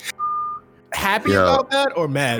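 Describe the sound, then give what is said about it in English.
A single steady electronic beep from a reversing garbage truck sounds at moderate volume in the background, amid construction noises, before a person starts talking over it. “And garbage yeah. truck.”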